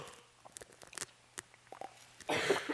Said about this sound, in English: I may start coughing, by the way.